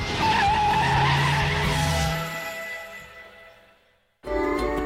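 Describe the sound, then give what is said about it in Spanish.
A car skids hard with a loud, drawn-out tire squeal and roaring engine, fading over a few seconds before a brief silence and another burst of squealing tires. “Este coche tira bien.”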